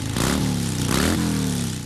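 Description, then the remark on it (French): An enthusiast's motorcycle engine is restarted and revs hard twice, the pitch climbing with each throttle blip before settling into a loud idle rumble. No voices are heard. “Moi, je redémarre la machine d'un passionné.”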